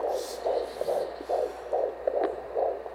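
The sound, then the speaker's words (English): A recorded fetal heartbeat of an unborn baby boy: fast, steady whooshing thumps, about two per second, with a soft hiss underneath and no voices. “Um, so I just want you to listen to the heartbeat of my son.”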